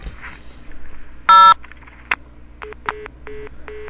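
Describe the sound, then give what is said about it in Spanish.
A loud burst of telephone keypad tone as zero is dialed, then a few faint clicks, followed by four short, evenly spaced electronic beeps as a call passed to a ministry's telephone switchboard is cut off. No one speaks. “Nos cortan. Esa gente no sabe ni usar una central telefónica.”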